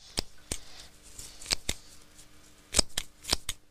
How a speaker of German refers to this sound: wie er sich mit einer Nagelschere die Brusthaare schneidet. Das klingt so.